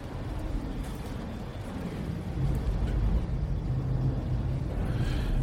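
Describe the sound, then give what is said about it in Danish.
A long, continuous low rumble of thunder rolls on for several seconds, swelling slightly louder partway through, with no voices present. “Og nogle gange så er det sådan et meget langstrakt buller.”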